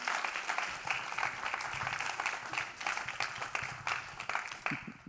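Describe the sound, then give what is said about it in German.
An audience applauds steadily for a man being called up onto the stage, a dense wash of many hands clapping at an even loudness throughout, with a few brief voice sounds mixed in underneath. “Komm, geben wir ihm einen herzlichen Applaus.”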